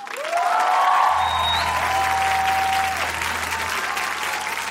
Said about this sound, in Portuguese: Abracem com seu aplauso caloroso Regina Duarte.